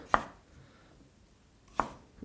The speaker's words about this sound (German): So, jetzt habe ich da zwei Stückel und schneide noch die Schale sowie beim Brot die Rinde einfach rundherum ab. Das Hölzerne braucht man nämlich nicht.